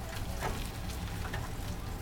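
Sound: oil sizzling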